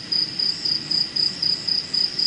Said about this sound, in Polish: Przepiękna, ciepła noc w ashramie w południowych Indiach. Symfonia świerszczy w tle.